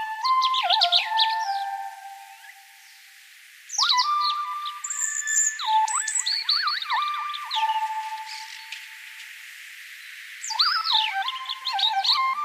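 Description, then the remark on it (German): A synthesizer imitates a European robin's song, its singing transcribed into notes and replayed one to one, with bright, warbling electronic phrases in several bursts separated by a short pause. It sounds clear, with no voices. “Das hier ist zum Beispiel das Rotkehlchen, der Gewinner aus 2021.”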